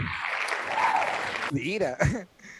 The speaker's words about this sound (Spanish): Aplausos para tu dato.